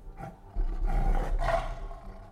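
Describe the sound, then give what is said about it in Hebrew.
A deep, rumbling roar of a saber-toothed tiger, a giant Ice Age cat with meter-long fangs, bursts in after a brief low growl, holding loud for over a second with a second swelling surge before fading. No one speaks. “והטיגריס חד השן, נמר ענקי שניבא והיו באורך מטר, שוטט גם הוא במרחבים בחיפוש אחר תרפו.”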